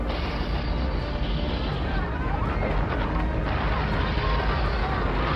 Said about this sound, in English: The ground is shaking, and the people, they are screaming.